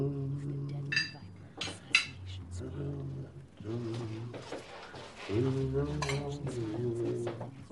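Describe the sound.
Cutlery clinks against plates a few times during dinner, in scattered bright taps, while voices keep talking throughout.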